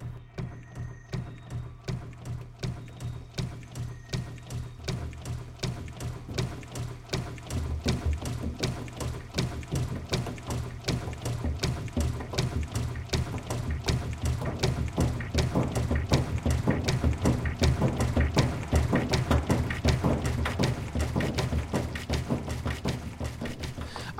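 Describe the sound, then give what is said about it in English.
Washing machine sounds reworked into music: a rapid, steady pulse of mechanical clicks and clatter over a low droning hum, growing denser and louder after the first few seconds, with no voices. “it's like an installation it's like this is the sound of the washing machine and they and they and they manipulate it in musical ways but they couldn't have made this album with any other sound sources or any other processes”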